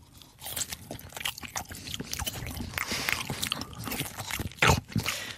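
Crunchy chewing of a seed, with repeated crackling bites in an irregular rhythm and one louder crunch near the end; no talking.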